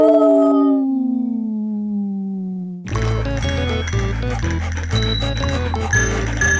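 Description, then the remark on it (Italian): A person lets out a long, loud dog-like howl as a goodbye at the end of a radio programme, sliding slowly downward in pitch for a few seconds, then upbeat music with a thumping bass line kicks in abruptly. “Questi sono stati i cani bagnati ed è il momento di ulularvi au revoir.”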